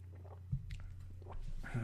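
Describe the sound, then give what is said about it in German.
Someone takes quiet sips of coffee: a few brief, wet slurping and swallowing sounds spread over two seconds, set against a steady low hum, with no talking. “Ähm, hol mal Luft, Zeit für einen Schluck Kaffee, mache ich auch sofort.”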